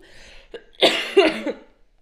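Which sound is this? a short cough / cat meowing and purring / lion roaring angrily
a short cough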